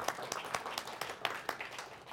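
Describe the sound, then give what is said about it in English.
Audience applause: many hands clapping together in a steady, crackling wash, with sharper individual claps standing out every fraction of a second at a moderate, even loudness. “You can save your applause for later, see if it's more real by the time we're done with today.”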